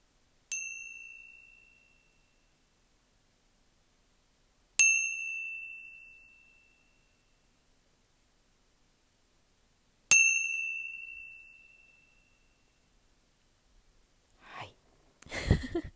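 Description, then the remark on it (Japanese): Tibetan tingsha cymbals are struck three times at slow, even intervals, each bright metallic ding ringing out and fading gradually; a faint breath and rustle follow at the end. “なんかね今日はなんとなくこうテンション鳴らしとこうって思ったんですよ。”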